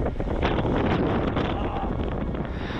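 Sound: strong wind blowing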